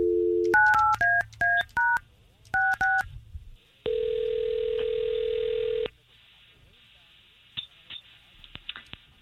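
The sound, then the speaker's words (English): A quick series of touch-tone dialing beeps in an uneven rhythm as a phone call to a woman is placed, then a single steady, loud ringing tone lasting about two seconds, followed by quiet line noise and faint clicks. “All right, let's call her.”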